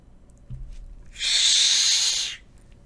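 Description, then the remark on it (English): A tomcat standing in a kitchen doorway, back arched and ears flattened, gives a single sharp hiss lasting about a second, a loud, breathy burst of noise against otherwise quiet surroundings. “I spin on my heel at the sound of a hiss. In the kitchen doorway, back arched, ears flattened, stands the ugliest tomcat in the world.”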